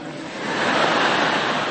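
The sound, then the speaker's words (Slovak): A crowd applauding steadily in honour of a bishop's service, a dense wash of many hands clapping that swells slightly after the start and holds at an even, fairly loud level with no voices. “ale ten potlesk bol pre tie náročnejšie chvíle biskupskej služby, lebo sa ma raz pýtali, že pán biskup, je ťažko byť biskupom.”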